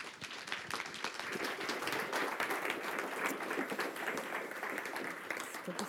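Sustained audience applause, a dense wash of many hands clapping steadily at an even, fairly loud level for several seconds without pause.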